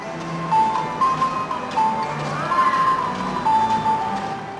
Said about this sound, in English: Some of them wiggle, others bow, and one of them even plays what looks like cymbals. You can hear the mechanical parts clicking as the characters move jerkily about.